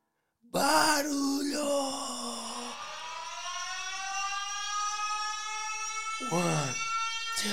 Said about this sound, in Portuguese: siren, siren, siren sound effect.